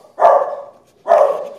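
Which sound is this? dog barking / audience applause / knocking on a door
dog barking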